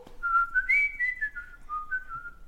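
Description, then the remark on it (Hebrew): A person whistles the tune of the Scouts' anthem from down below, the clear, steady notes rising and falling for a couple of seconds at moderate loudness with no talking. “הם עמדו שם למטה ושרקו.”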